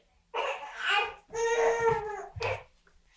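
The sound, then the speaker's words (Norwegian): A baby cries in short, fussy bursts, wailing twice with a brief pause between and ending in a softer whimpering sob. “Ok, to sekker må bare hente baby.”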